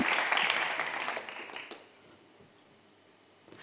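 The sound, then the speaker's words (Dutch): A crowd claps in a dense, steady burst of applause for a volunteer that fades out after about two seconds, leaving quiet with faint rustling. “Nou ja, groot applaus voor mijn vrijwilliger.”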